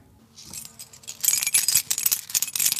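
Keys jangle, a bright metallic clinking that starts softly and grows into a busy, irregular rattle for a few seconds, with no voices.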